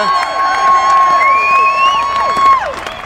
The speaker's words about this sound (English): a podium in front of you know massive crowd here on the start line at Brands Hatch